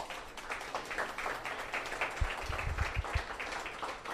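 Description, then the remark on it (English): An audience applauds one of three speakers being introduced, steadily for about four seconds, a dense, even patter of many hands clapping at moderate loudness, with a few dull low thumps partway through. “We're gonna give him a round of applause.”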